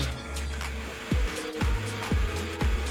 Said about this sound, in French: Là, on entend aussi un ventilateur chez toi. Est-ce que ça se peut?